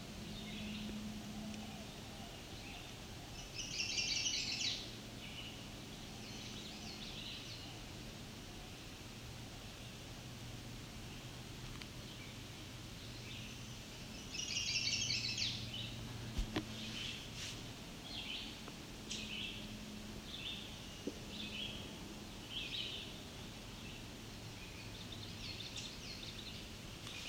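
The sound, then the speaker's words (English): A male chestnut-sided warbler sings two bright, high phrases about ten seconds apart, with softer scattered chips in between, all over a steady hiss of outdoor background noise. “That's a chestnut-sided warbler.”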